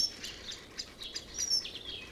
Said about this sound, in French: Ah merde. Avec tous ces oiseaux à la con, ils trouvent ça calme.